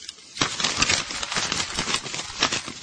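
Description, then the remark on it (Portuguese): Continuous crinkling and crackling of a paper Lotofácil or Mega-Sena lottery ticket being crumpled by hand, starting after a brief pause and lasting a few seconds with no voices. “amassei meu, minha, minha loto fácil, a Mega Sena.”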